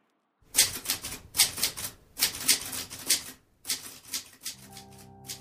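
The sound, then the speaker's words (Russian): Rapid clattering of typewriter keys in quick irregular bursts, with brief pauses between runs, ending with a sustained tonal hum or ring as the typing stops, as Agatha Christie types the manuscript of her first detective novel. No voices. “То активно печатала на машинке, то снова откладывала рукопись.”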